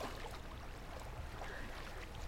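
Water flows steadily and softly in a continuous, even wash of sound with a low rumble underneath, fairly quiet and unbroken, with no voices.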